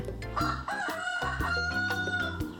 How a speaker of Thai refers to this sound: ถ้าเสียงไก่ขันเป็นเสียงสัญลักษณ์ของยามเช้าที่จะปลุกผู้คนให้ตื่นมา